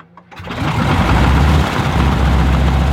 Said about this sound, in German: Und jetzt hören wir uns noch mal ganz kurz an, wie so eine u 52 klingt, wenn die ihre Motoren anlässt.